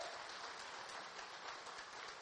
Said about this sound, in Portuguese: Você crê nisso? Aplauda o Senhor.